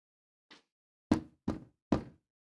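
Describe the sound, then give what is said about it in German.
Heavy hammering on an apartment door: one soft tap, then three loud, booming blows in quick, steady succession, each with a deep thud. No voices. “Unsanft durch ein Hämmern und ständiges Klingeln an der Wohnungstüre wurde sie geweckt.”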